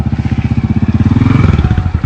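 A motorcycle with a bald rear tire runs, its rapid, rhythmic putter loud and steady throughout, with a slight rise in intensity midway and no voices over it.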